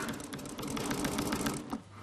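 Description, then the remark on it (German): A sewing machine stitches steadily as a saddler quilts pre-drawn diamond shapes, its needle producing a rapid, even rhythmic clatter for about two seconds before slowing at the end. No one speaks. “Die Nähmaschine gehört zu ihrem Werkzeug wie Hammer und Zange.”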